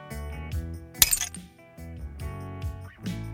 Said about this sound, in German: Wir haben die Fliesen aufeinanderfallen lassen, sie zerbrochen oder mit anderen Gegenständen draufgehauen.